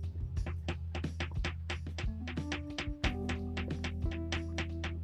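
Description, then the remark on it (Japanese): A guitar pick held in the right hand is pushed upward again and again against the underside of a protruding desk edge, a steady run of sharp clicks over a low steady hum, with no talking. “まあ、正解はですね、特にやることもなく、手持ち無沙汰で、ギターのピックを右手に持ち、えー、机、机の、えー、はみ出てる部分に対して下から上に突き上げてる音ですね。”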